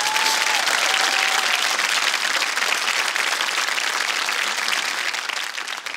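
Sustained audience applause, a dense crackle of many hands clapping at steady loudness for several seconds before starting to thin out at the end. A brief whistle-like tone rises early on.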